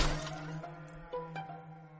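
A stone smashes against the lock of a wooden box, struck hard to break it open beside a dry well in a backyard by moonlight, with a sharp crash, leaving a sustained metallic ringing, then two lighter knocks follow about a second later while the ring fades.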